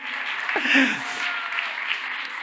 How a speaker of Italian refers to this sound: che è questi applausi? Eh?